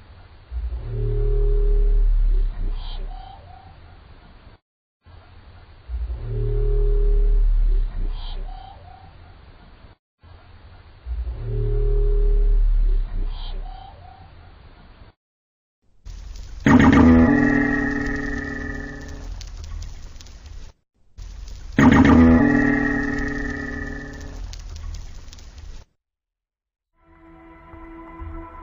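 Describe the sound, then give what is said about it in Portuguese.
An underwater recording made by scientists in the Mariana Trench in 2014: three deep, droning moans in a row, then two louder, metallic twangs with ringing overtones, each separated by brief silences, with no voices. “Os pesquisadores chamam esse barulho de twang.”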